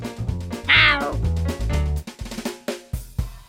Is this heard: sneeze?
no